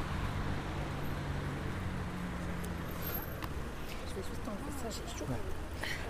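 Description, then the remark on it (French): Steady roar of street traffic fills the scene, with cars rumbling past and a constant low engine hum, while voices talk faintly underneath. “peut-être qu'on peut continuer à, bouger un peu plus loin des voitures.”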